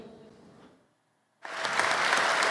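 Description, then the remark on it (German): A brief murmur fades to near silence, then loud sustained applause bursts in: a standing ovation from the assembled world audience in the room after a ten-year-old girl's climate speech, dense clapping from a large crowd that keeps building steadily to the end. “Sie bekommt Standing Ovations der versammelten Welt im Raum.”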